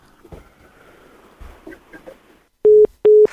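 signal or alarm, telephone busy tone

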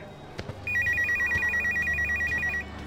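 signal or alarm, cell phone ringing

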